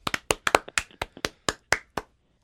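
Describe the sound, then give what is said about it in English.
Brief crowd clapping welcoming a guest onto a program: about a dozen sharp, separate hand claps in an uneven, loose rhythm, stopping after roughly two seconds. No one speaks. “Listen to the crowd.”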